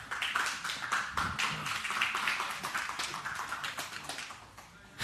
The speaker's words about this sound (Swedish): Vi, eh, jag tycker att vi välkomnar Mikael med en varm applåd här.